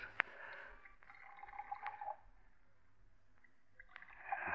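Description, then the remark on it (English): Brandy pours and gurgles steadily into two brandy snifter glasses, with a couple of light glass clinks between two separate pours and no voices. “Now, two glasses, please. Brandy snifters, of course.”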